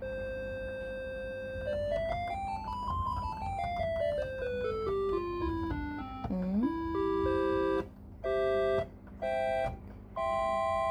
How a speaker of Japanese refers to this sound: じゃあ次は68から80は、サンス、サンス、シンススクエアリード。どういうこと ?68。